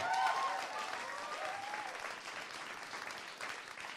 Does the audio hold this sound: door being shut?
no